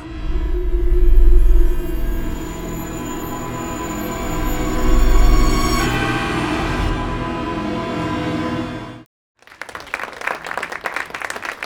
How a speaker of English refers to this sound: I love that there's like a motorcycle sound there. like, where's the motorcycle? the whole floor is rumbling.